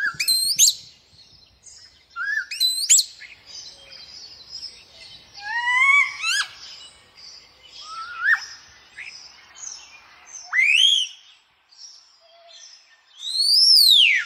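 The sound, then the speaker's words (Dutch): A common starling sings alone, clear: a varied run of whistled sweeps, rising and falling slurs, and buzzy chatter with soft clicks, coming in bursts with brief pauses between. “Mooi, dan gaan we nu nog even luisteren naar dat prachtige geluid.”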